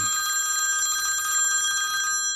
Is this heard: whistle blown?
no